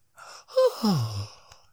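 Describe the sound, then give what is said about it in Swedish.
A single drawn-out yawn from a man, starting with a breathy intake and sliding down into a low, voiced groan before trailing off, fairly loud with no talking. “gäspar och så skulle han... Han kör, han kör en gäspklapp.”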